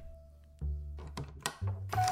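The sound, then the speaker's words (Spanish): An old wooden treasure chest in an attic, dusted off and found to be unlocked, creaks open with low groaning thuds and a few sharp metallic clicks from the latch. The sound is fairly loud, with no voices. “Subió, al tener el cofre enfrente y después de limpiarle el polvo y comprobar que no tenía seguro, decidió abrirlo.”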